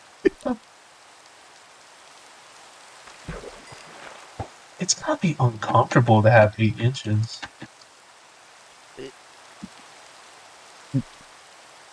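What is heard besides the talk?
rain falling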